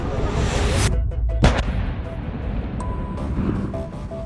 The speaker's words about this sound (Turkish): imha ekipleri şimdi bulunduğumuz Trablus'un güneyindeki bu kırsal alanda sivillerin evlerinden temizlenen bu patlayıcıları imha edecekler. Mayınlar, ateşlenmiş ama patlamamış roketler ve havan topları gibi toplam 15 ton mühimmat burada imha edilecek.